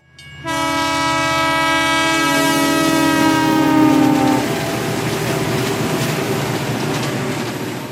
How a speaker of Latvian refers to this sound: Nu, šo skaņu jūs atpazināt, vai ne? Jā, kravas vilciens. Jā, tas ir vilciens. Vilciens ir ērts transporta līdzeklis, bet vilciens iet pa sliedēm, un tas ir ļoti liels un ļoti smags.